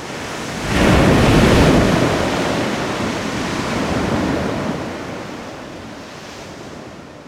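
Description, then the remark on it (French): A single ocean wave breaks with a loud crash about a second in, curling over on itself, then churns into a long roaring wash of foam that slowly fades, with no voices present. “jusqu'à l'instant où elle se brise soudain, s'enroule sur elle-même avec plus ou moins de violence.”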